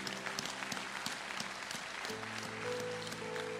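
A crowd claps steadily in dense, sustained applause, with a low sustained tone humming underneath throughout and no voices standing out.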